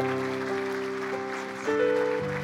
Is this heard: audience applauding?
yes